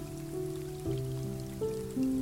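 Soft, sustained piano chords change every half second or so over a steady wash of gentle rainfall, accompanying a relaxing meditation, calm and moderately quiet with no voices.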